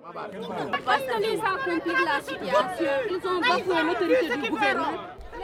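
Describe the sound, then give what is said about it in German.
Many overlapping voices talk at once in a dense, agitated babble: a crowd of about 250 angry women arguing loudly and continuously without a pause, at a border post between southern Senegal and Gambia. “Die Frauen sind wütend. Sie diskutieren laut und aufgebracht.”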